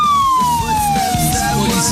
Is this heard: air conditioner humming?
no